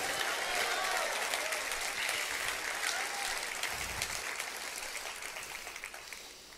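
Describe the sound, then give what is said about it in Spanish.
A church audience at a morning service breaks into loud, sustained applause mixed with scattered shouts of praise to God, a dense crowd roar that slowly fades over several seconds. “Vamos, si lo puedes creer, dar un gloria a Dios bien fuerte.”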